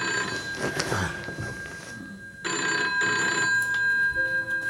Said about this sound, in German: Er ruft so früh am Morgen an. Nimm schon ab, Max. Das Geräusch weckt ja das ganze Haus.